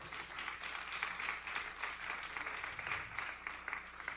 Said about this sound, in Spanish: Recibe esta palabra con un fuerte aplauso, por favor.